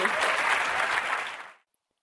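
An audience at a UX Australia 2017 conference presentation applauds, a dense wash of many hands clapping at steady loudness for about a second and a half, then fading out quickly to silence.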